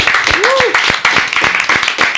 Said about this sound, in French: On l'applaudit tous, merci beaucoup, ça fait vraiment plaisir.